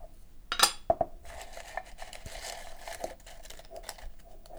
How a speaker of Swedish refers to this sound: du ska få dra en lapp i den här burken. Mm. Skaka den.